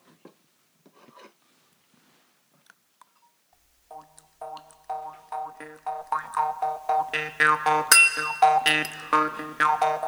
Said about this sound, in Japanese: じゃあまずちょっと音聞かせますね。まあこれねモーリップっていうなんか口に当てて音鳴らす民族楽器